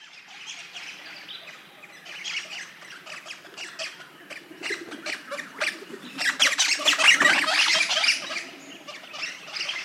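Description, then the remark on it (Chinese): A flock of Crimson Rosella parrots squawking and chattering continuously, harsh bright calls overlapping in dense bursts that grow louder toward the end, with no voices present. “他们那边有很多 Crimson Rosella，它是跟那个 Eastern Rosella 相比呢，不同之处呢，就是它的颜色是大片的红色跟大片的蓝色相间的，这个呢也是一种。”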